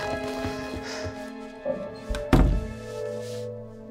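A single solid thunk, like a door being shut, lands partway through over a steady low background hum, with a couple of softer bumps just before it.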